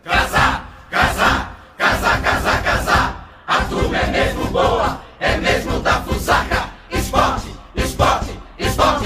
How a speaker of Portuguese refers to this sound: Desde então, o casar, casar, casar é o grito de guerra do rubro negro pernambucano.